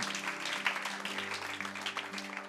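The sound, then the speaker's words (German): An audience applauding God during a worship service, a dense, steady wash of many hands clapping throughout, with sustained low musical tones holding underneath. “Gib ihm Applaus.”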